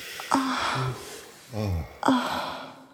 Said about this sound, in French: On ne produit pas de discours, mais des signaux vocaux plus ou moins intenses, des souffles, des gémissements, des râles, des expirations.